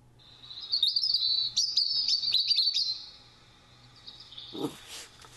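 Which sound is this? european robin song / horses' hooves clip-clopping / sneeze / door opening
european robin song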